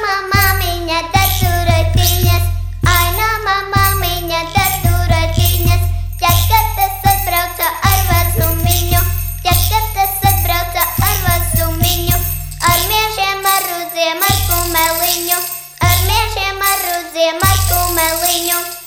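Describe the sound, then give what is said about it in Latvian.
A loud, continuous Christmas folk song sung by pupils of folklorist and teacher Ilga Reizniece plays, with a bright melody moving in short rhythmic phrases over a steady, droning low accompaniment that drops out briefly a few times. “Bet no minēšanas pauzē, lai skan folklorists un skolotājs Ilgas Reiznieces audzēkņu Ziemassvētku dziesma.”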